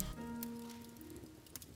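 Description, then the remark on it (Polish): Soft, steady patter of sleet (snow mixed with rain) falling outside a window on a cold morning, a faint continuous hiss with scattered light ticks, heard quietly in the background alongside a low sustained hum. “Kolejny ranek jest jeszcze chłodniejszy i ku waszemu największemu zdziwieniu widzicie jak za oknem zaczyna padać śnieg z deszczem.”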